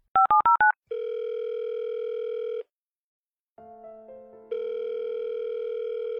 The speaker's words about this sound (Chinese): 可电话拨通之后，那边一直是忙音，也没有人接。 怎么没人接呀？